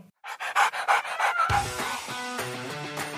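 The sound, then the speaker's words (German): A dog named Eika pants in quick, rhythmic huffs, about half a dozen breathy bursts, before music fades in and carries on over the remaining panting. “Bis dahin bleibt fröhlich und Wuff von meiner Eika.”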